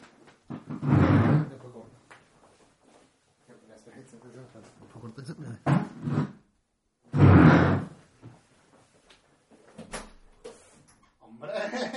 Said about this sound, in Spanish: Venga, pues te abro la puerta. Un momentito.